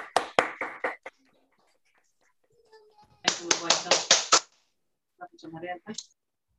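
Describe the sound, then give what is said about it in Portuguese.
Audience applause after a presentation in two short bursts of crisp, evenly spaced claps separated by a pause, followed by a brief murmur of voices at the end. “Olha que legal, uma salva de palmas, pessoal.”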